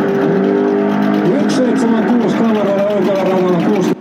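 A race car engine roars loudly, revving and climbing in pitch as it accelerates hard, with a steady, continuous snarl before cutting off abruptly.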